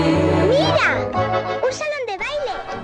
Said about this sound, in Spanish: Acabamos de escuchar y está sonando todavía de fondo la genial canción de la película de Disney La Bruja Novata